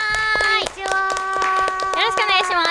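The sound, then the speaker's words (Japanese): Brisk applause from a few pairs of hands welcoming a guest, sharp claps landing in a steady patter for a few seconds while a sustained, voice-like tone drones and wavers beneath them. “拍手でお迎えください。”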